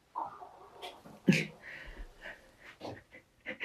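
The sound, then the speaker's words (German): A sleeping pet lying right next to the speakers snores, making irregular snorts, wheezy breaths and odd little dream noises in short uneven bursts, with no talking. “Kenny, der liegt neben uns am Schlafen und der ist gerade am Schnarchen. Oder am Träumen. Er macht so komische Geräusche.”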